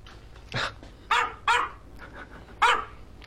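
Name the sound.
dog barking and growling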